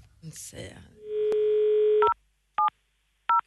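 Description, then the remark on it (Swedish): A brief rustle gives way to a steady dial tone, followed by three short, evenly spaced dual-tone beeps of a phone being dialed to call Anders Timell, clear with nothing else over them. “Ska vi ringa honom? Ja, gör det. Ring honom.”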